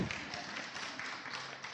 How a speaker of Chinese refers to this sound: 哦，你们鼓掌是什么意思啊？